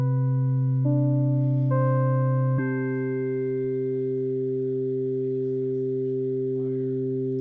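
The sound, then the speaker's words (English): Sustained synthesizer tones, rich in harmonics, step to new pitches three times in the first few seconds, then settle into one steady, even drone for the rest. No voices. “You're going to hear some synthesizers.”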